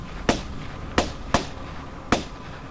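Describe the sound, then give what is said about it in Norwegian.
Four sharp pistol shots crack out one after another at uneven intervals, each a loud, abrupt bang with a brief ringing tail, with no voices in between. “Men like etterpå planter han ubrydd fem kuler i det lille, mørke ansiktet nede på bakken.”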